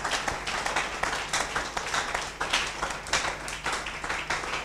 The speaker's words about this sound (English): Clap your hands for this Samaritan.